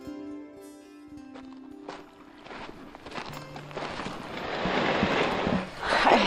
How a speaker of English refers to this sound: climbing into a canoe